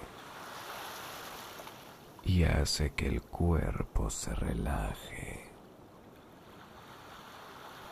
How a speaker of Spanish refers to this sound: ¿Sabías que está demostrado científicamente que el mar nos transmite calma? hace que nuestra mente entre en un estado de relajación máximo. Porque el constante ir y venir de las olas invitan al cerebro a desconectarse